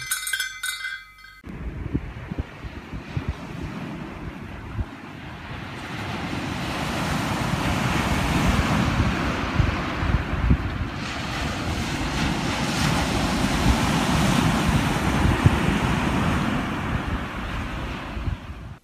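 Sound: ocean waves and surf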